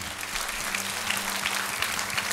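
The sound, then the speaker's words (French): A crowd claps steadily during a Sunday morning gathering, acclaiming and applauding 'the best' that God provides. Many hands blend into a dense, even wash of applause that holds without pause for the whole stretch, with no voices rising above it. “Et on peut, on peut effectivement acclamer et applaudir le meilleur.”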